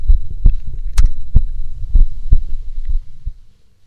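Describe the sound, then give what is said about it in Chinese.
A steady heartbeat thumps in low, muffled pulses, roughly two beats per second in paired lub-dub rhythm over a faint hum, fading out at the end. No one speaks. “不信，不信你过来听，在这里，这里，听见我的小心心。”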